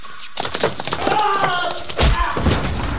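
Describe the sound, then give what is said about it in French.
A sharp blow from an ice axe, swung by Mercader, to Trotsky's right temple: a heavy thud with a crunching, splintering edge, followed by a second dull impact and scraping, messy movement. “l'ex-dirigeant soviétique vient de recevoir un terrible coup à la tempe droite.”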